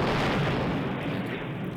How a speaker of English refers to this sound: Happened just outside, just outside the apartment. Totally different explosion than usual. Very loud this time.